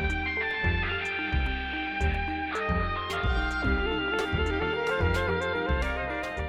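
A short, upbeat instrumental jingle plays on its own, with a steady pulsing bass beat, bright sustained melodic tones and crisp percussion hits at a bouncy, even tempo, played loudly.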